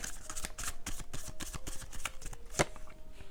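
Osho Zen tarot cards being shuffled before a card is drawn: a quick, steady run of crisp papery flicks and riffles with no talking, ending with a slightly sharper snap near the close.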